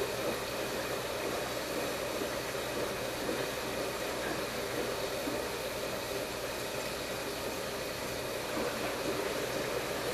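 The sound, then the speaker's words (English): A washing machine drum churns with water while water is still going in, a steady, dense whooshing hum that stays even and continuous for the whole stretch, with no voices. “They can still hear water tumbling around in the tub.”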